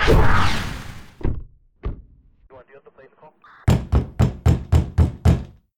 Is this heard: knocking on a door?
yes